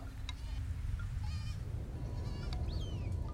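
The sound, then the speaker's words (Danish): A drowning goat bleats several times in short, strained cries over a steady, heavy low rumble like churning water, the calls clear above the noise. “Geden er ved at drukne, indtil endeligt benene knækker under geden.”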